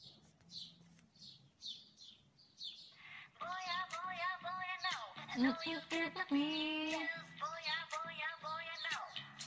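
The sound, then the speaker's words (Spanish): A chorus of small birds chirps and tweets in quick, overlapping bursts, like a dawn chorus. After a few seconds a fuller, melodic layer swells underneath while the chirping carries on. “Muchos pajaritos, como que fuera el amanecer.”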